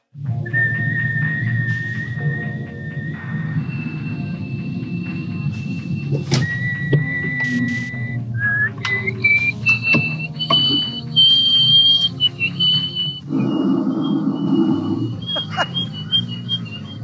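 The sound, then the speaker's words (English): A woman's loud, sustained world-record whistle blown only through her nose, measured at 44.1 decibels, holding steady high pitches that step up and down over several long notes, with a breathy rushing undertone and no talking. “And her nose, she blew a 44.1 decibel whistle using only her nose.”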